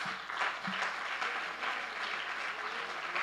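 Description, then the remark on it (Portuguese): An audience applauding, a steady, dense wash of many hands clapping at once, sustained at an even loudness throughout with no speech over it. “Pode aplaudir, irmãos.”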